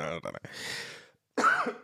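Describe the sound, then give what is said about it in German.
A slightly ill person coughs, a harsh throaty burst followed by a rough exhale, then a short pause and another raspy vocal sound; no clear words are spoken. “So, abgehustet, ab geht's.”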